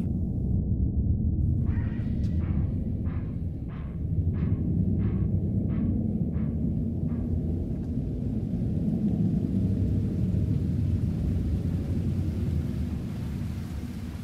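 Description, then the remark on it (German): Deep, continuous rumbling thunder rolls under a steady wash of heavy rain, while a run of about nine evenly spaced light knocks sounds early on before fading out. “Und es regnete und regnete wie tausend Jahre Regen.”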